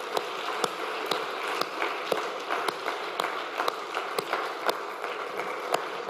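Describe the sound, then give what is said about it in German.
An audience at a Sunday worship service applauds together to congratulate newly baptized members, a dense, steady wash of clapping with sharper individual claps standing out, sustained for several seconds without any talking. “Lass uns unsere Täuflingen zum ersten Sonntag Gottesdienst nach der Taufe gratulieren mit einem großen Applaus.”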